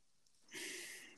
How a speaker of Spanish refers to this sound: Coño, esa respiración. Qué locura.